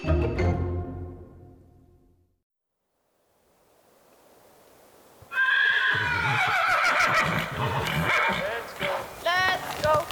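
Loud horse whinnies ring out over a busy outdoor background, following a brief hush and a rushing, wave-like swell, with shrill wavering cries near the end.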